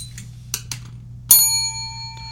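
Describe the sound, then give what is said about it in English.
A small bell is struck once, sharp, its bright ringing tone lingering and slowly fading, preceded by a few soft clicks and a low background hum. “where's my bell?”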